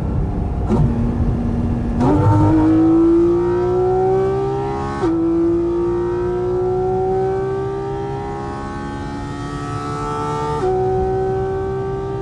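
A sports car engine revs hard and loud, its pitch climbing steadily through several gear shifts, each shift dropping the tone briefly before it rises again. No one speaks.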